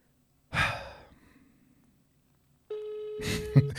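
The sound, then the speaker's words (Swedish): A heavy sigh, then after a pause the steady electronic ringing tone of an outgoing phone call comes through the line and holds to the end, with a brief rustle over it near the close. “Sällan man ringer ut eh, signaler.”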